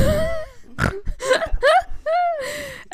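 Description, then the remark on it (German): A person vocally imitates a pig, producing a series of nasal grunts and oinks in quick succession, fairly loud with no other sounds around. “Äh, ja, Grunz.”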